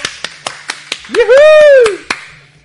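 Steady, rhythmic applause of about ten sharp claps at an even pace, with a loud sustained whooping cheer rising and falling over the middle before the clapping trails off.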